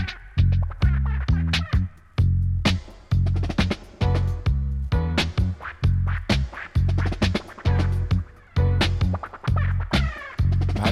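A reggae track driven by a deep, prominent bass guitar line, with steady, choppy offbeat chords and crisp drum hits keeping a loping rhythm. Instrumental, no singing or talking.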